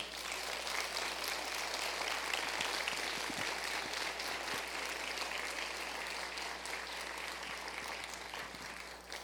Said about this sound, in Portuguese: Você foi abençoado, abençoada nessa manhã? Será que a gente pode aplaudir o Senhor?